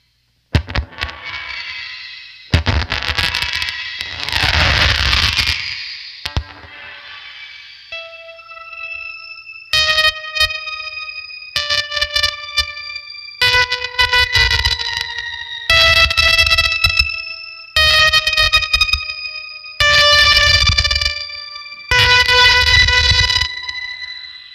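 Eerie, spacey guitar tones through fuzz and shimmer pedals: a noisy, swirling wash at first, then a series of bright, ringing chord pulses with echoing repeats, loud, with no talking.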